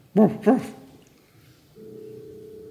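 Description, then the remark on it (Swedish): A dog named Cricket barks twice in quick succession, loud, in agreement, followed by quiet and then a steady, low electronic-sounding tone. “cricket eh, skäller instämmande.”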